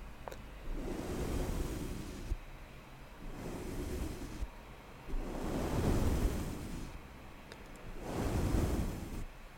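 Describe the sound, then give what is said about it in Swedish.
Soft ASMR brushing strokes across a microphone, four or five broad whooshing swells in a slow steady rhythm, each rising and fading like rustling surf, with no talking. “Kör lite mick-brushing här.”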